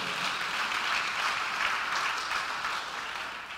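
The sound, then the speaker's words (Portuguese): A crowd claps steadily for a few seconds, a dense burst of applause that stays fairly even before tapering slightly at the end, with no voices heard. “Dá um aplauso aí, vai.”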